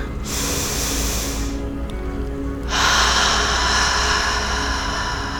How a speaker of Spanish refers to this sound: Vamos a hacer un breve ejercicio para aflojar la tensión. Vamos a iniciar tomando una respiración profunda.